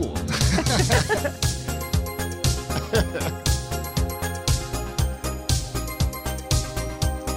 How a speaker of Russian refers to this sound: Ну, звуки правильные, да. То есть они набрали вот этих сэмплов. Это же синтезаторы, драм-машина.